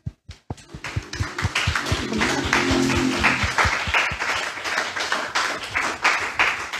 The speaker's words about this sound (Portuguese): Amém? Aplauda o Senhor.